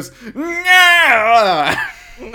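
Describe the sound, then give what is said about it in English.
A voice mimics Voldemort's drawn-out wailing cry, done at the end of a dance, rising into a strained, quavering high pitch for about two seconds before breaking off, loud. “He does his Voldemort cry.”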